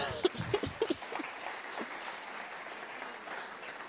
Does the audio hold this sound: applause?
yes